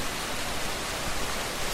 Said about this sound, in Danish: Larmen fra de mange små vandfald og store vandstråler, der rammer den uberørte overflade i det mennesketomme badeland, er næsten for høj til at føre en ordentlig samtale.